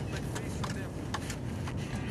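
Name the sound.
car driving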